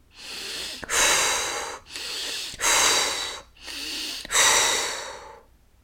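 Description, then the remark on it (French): Three deep, energizing breaths, each a sharp, forceful inhale followed by a longer, loud rushing exhale, in a steady rhythm with no talking. “Et pour cela, je vais prendre trois grandes respirations toniques cette fois-ci.”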